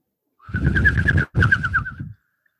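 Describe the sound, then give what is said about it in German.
A human voice imitates a pigeon's cooing as a joke in a studio: two warbling, bubbling coos separated by a brief gap, with a steady low throaty hum underneath. “Wir War haben einen Vogel im Studio.”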